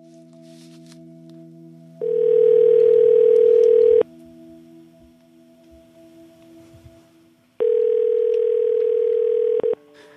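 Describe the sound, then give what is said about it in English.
A telephone rings twice as a call goes out, each loud ring lasting about two seconds with a long pause between, over a quiet, steady droning tone. “One of the first calls I made as we started this podcast was to”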